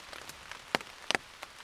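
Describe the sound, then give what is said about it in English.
Rain patters steadily on a semi-transparent tent during a storm, a soft constant hiss broken by a few sharper, louder drops tapping the fabric. No one speaks. “As you can hear around me, it is raining, but not only raining, it is also a storm.”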